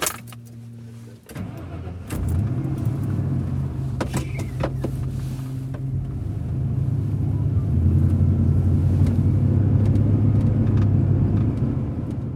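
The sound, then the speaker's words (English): Inside a car, a low engine hum and road rumble fill the cabin, with a few clicks and thumps near the start and a brief whir like a power window, steady throughout. “This makes them good for recording things like crowds, vehicle interiors.”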